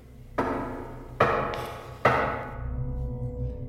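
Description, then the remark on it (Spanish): Three distinct taps of a finger on wood beneath floorboards, evenly spaced about a second apart, each a sharp hollow knock with a short ringing tail over a low, steady background rumble. “Una noche fue despertado por un extraño ruido, el de un dedo repiqueteando en la madera.”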